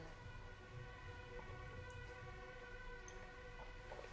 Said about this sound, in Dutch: Zo. Nou, sirenes. Misschien een teken om deze live af te sluiten. Ehm, ik weet niet of je die sirenes hoort, maar ik hoor heel veel sirenes hier.